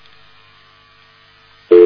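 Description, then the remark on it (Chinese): Faint, steady line hiss and hum, then a loud, steady telephone line tone cuts in abruptly near the end, a single sustained mid-pitched buzz. No one speaks. “其实有些电话就是这样的。”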